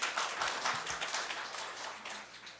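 An audience claps together in steady, dense applause, a bright crackling wash of many hands that holds an even loudness throughout with no voices on top.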